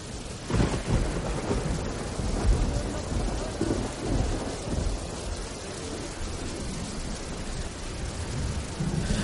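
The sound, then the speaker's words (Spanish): A thunderstorm with steady rain and deep, rolling thunder that swells early on, then settles into a continuous rumble and hiss of downpour with no voices. “No contaba con la tormenta que se avecinaba.”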